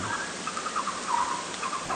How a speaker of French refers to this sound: Euh, beluga, c'est ça. Alors ces sifflements, ça fait plus penser à des oiseaux qu'à des cétacés, exactement. Et on les, a nommés les canaries des mers.